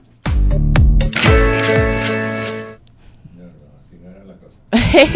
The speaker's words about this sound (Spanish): Me encantó ese efecto zzzz de suspenso.